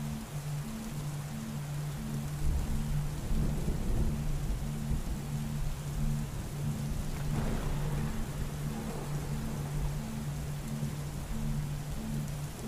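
Summer thunderstorm: a steady, dense hiss of rain with deep rolls of thunder swelling twice, and a faint low pulsing hum underneath. No one speaks.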